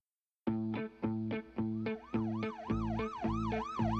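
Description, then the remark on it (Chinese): A loud police car siren as police arrive, starting with a few choppy, steady honking blasts, then shifting into a rapid, looping rise-and-fall wail. No one speaks over it. “警察赶到了”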